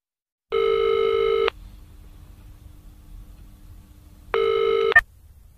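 signal or alarm, telephone dialing and ringing

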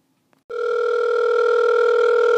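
signal or alarm, phone call ringing

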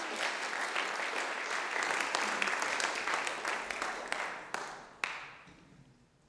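crowd, audience applause

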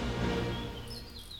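bird, small birds chirping

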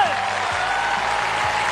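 crowd, studio audience applause

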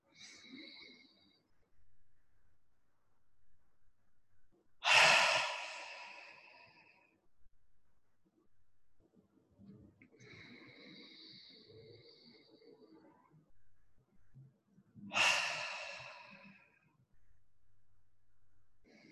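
human body sound, deep breaths in nose

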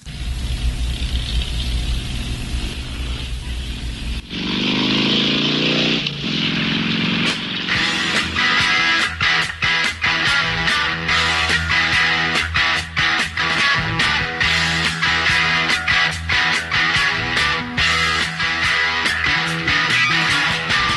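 rock song intro playing

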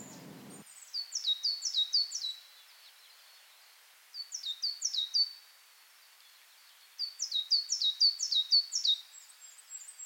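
bird, small birds chirping

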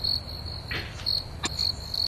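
insect, cricket chirping

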